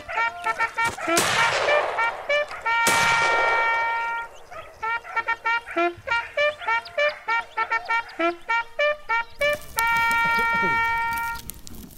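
Two loud, sharp hunting gunshots ring out about a second apart, each with a short fading tail, followed by a quick run of repeated honking, tonal notes.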